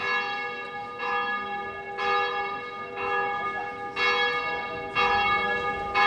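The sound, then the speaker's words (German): Church bells of the Gothic St Mark's Cathedral in Korčula, Dalmatia, ring in a steady pattern, struck roughly once per second with rich, lingering overtones, loud, with a faint murmur of background noise and no speech. “Das Glockengeläut ist nicht nur Uhrzeit bekannt zu geben, Glockengeläut ist im Kurschlag viel, viel mehr.”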